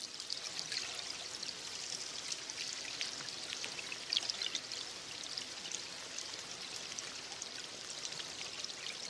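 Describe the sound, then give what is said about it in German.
Steady underwater ambience from a hydrophone mounted about 17 metres deep, 200 metres off the Canadian coast in the Salish Sea between Vancouver Island and Washington State, heard via livestream: a dense, even crackling and fizzing hiss, like rain on water, continuing without pause and with no voices. “Die Geräusche nimmt ein Unterwassermikrofon auf. Das ist in etwa 17 Meter Tiefe, 200 Meter vor der kanadischen Küste montiert.”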